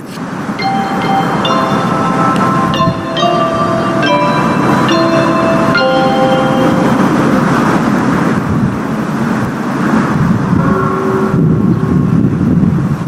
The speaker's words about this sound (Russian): Так звучит красноярский Биг Бен. Час дня сейчас в Красноярске. А, если бы было, например, два часа, соответственно, было бы два удара.